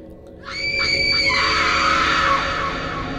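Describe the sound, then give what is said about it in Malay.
A person lets out a loud, sustained scream, starting with a few wavering pulses before breaking into a long, shrill cry that holds for about two seconds. “Kenapa dia pekik?”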